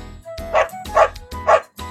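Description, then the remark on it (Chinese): A small dog barks three times in a steady rhythm while chasing someone, sharp yappy barks with a bright, fairly high pitch, fairly loud over a low background rumble. “嘿，瞧你，狗狗追他，追他！”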